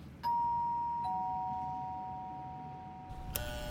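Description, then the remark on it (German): An apartment building doorbell chimes a clear two-note ding-dong, both tones ringing out and slowly fading, with a brief sharp click near the end. No one speaks. “Ganz oben auf der Klingel steht der Name eines IT-Unternehmens.”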